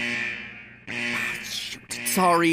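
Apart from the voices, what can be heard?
alarm buzzer going off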